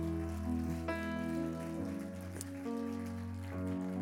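Steady crowd applause, a dense patter of clapping that holds for the full four seconds, mixed with sustained keyboard chords that shift harmony a few times underneath.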